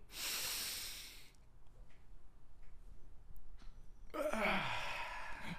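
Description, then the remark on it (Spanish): A deep breath drawn in sharply, then a few seconds of near silence while it is held, as when taking out the trash, ending in a loud rushing release of air. No one speaks. “¿Y eh, aguanto mi respiración hasta botar toda la basura, cerrar la puerta porque no quiero leer ni un poquito de la basura.”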